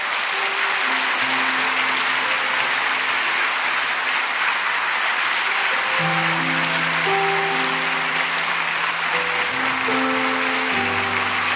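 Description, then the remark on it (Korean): Sustained applause of encouragement from a crowd, a dense steady clatter of many hands clapping throughout, with soft musical tones sounding underneath. No one speaks. “다시 한번 격려의 박수로 감사합니다.”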